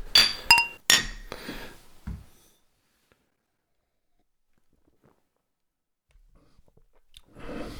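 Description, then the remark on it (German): Beer glasses clink together a few times in quick succession in a toast, bright, followed by a soft thud, a long stretch of quiet, and some faint rustling near the end. “Na dann wollen wir mal probieren. Prost.”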